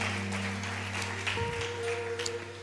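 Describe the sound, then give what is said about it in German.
An audience at a live-streamed church service claps in a steady, dense patter of many hands, with no voices, while low sustained tones hum underneath throughout. “Das ist der Moment, wo ihr hier klatschen solltet, dass die alle mit da sind, sie sich nicht alleine spüren.”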